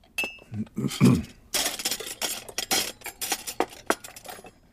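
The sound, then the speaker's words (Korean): A spoon clinks and scrapes repeatedly against a dish in an irregular rhythm while microwave-heated curry is mixed with cold, slightly hardened rice late at night, with a brief low voice-like sound near the start. “아무 생각 없이 2분이 지나고 뜨거워진 카레를 조심조심 꺼낸 다음 거기에 살짝 꼬들꼬들 굳은 찬밥을 비빕니다.”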